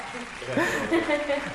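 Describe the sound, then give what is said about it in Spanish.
A steady patter of audience applause at a live interview fills the short stretch, with voices and a bit of laughter rising over the clapping. “Un aplauso, muchas gracias.”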